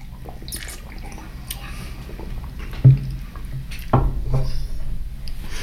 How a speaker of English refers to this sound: So uh, so cheers. Cheers, bro. Okay, let's take a sip.